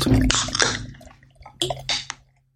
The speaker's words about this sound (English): Whoa, very fizzy beer.